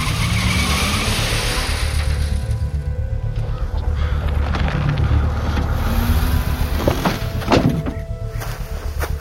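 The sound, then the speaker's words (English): A car engine roars loudly and steadily as the vehicle pulls away, tires screeching and skidding over the continuous rumble, with a few sharp squeals near the end. No one speaks. “You've got a missing vehicle to report.”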